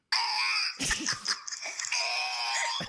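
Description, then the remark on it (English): A cat lets out a long, strange yowl, loud, wavering and breaking in the middle before settling into a drawn-out nasal wail for about three seconds. “That's a fucking cat making that noise.”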